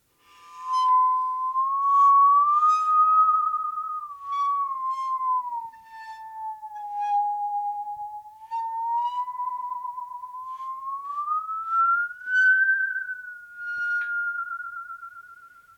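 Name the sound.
musical saw being played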